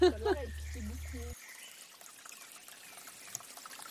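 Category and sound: nature, splashing water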